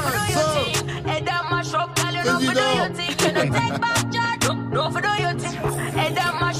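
A loud, full-mixed new music track plays on the radio continuously, with a steady punchy beat, deep sustained bass and gliding melodic vocal lines layered over it.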